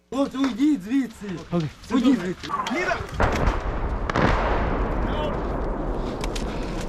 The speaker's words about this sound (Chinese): 距离首都基辅半小时车程的城市伊尔平也持续被俄军炮击，住宅区陷入一片火海。